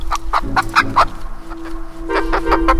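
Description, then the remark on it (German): A chicken, carried on a person's arm at a manor farm, clucks in a quick series of short, bright clucks, pauses briefly, then breaks into another busy burst of clucking over a low, steady background hum. “mit einem Huhn auf dem Arm zur Tür des Gutshauses.”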